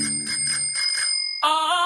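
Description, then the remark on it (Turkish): A bicycle bell in a radio advertisement for Eti's yellow bicycle (sarı bisiklet) cyclist-awareness campaign rings out in bright metallic tones, with a quick series of rings followed by a sustained shimmering ring at the end, heard alone with no talking. “Eti sarı bisikletle trafikte bisikletlinin farkındayım.”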